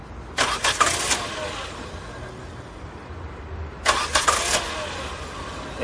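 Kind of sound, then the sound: vehicle, car engine starting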